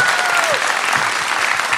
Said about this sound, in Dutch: Natuurlijk ook applaus voor de expert aan tafel,